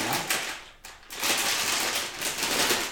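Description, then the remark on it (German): Someone eating Haribo gummy frog candies brought from home, recorded in stereo as ASMR: a dense, steady stream of crinkly, crackling clicks and smacking with a brief lull near the start, then continuing busily to the end, with no talking. “Ich habe hier ich habe hier so Frösche, ja. die ich mir von zu Hause mitgebracht Da esse ich mal kurz noch ein, zwei.”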